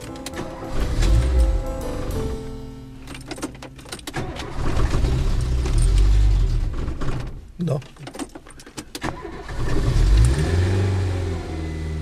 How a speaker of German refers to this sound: Der 71-jährige Kapuzinerpater fährt einen Renault R4. Curryfarben mit bunten Zierstreifen, 30 Jahre alt. Ein Oldtimer, aber mit geregeltem Cut, wie der umweltbewusste Ordensmann betont.